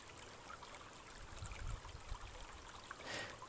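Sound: brook water flowing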